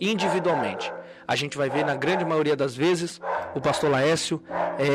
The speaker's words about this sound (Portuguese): Então eu já quero iniciar essa conversa é, pedindo desculpa por esse cachorro bendito que está nos atrapalhando.